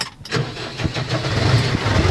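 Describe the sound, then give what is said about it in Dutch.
A heavy diesel tractor engine cranks and catches, settling into a loud, throbbing rumble with a steady pulsing rhythm. Nobody speaks. “dan gaan we lekker in de trekker zitten en dan zetten we gewoon de airco aan”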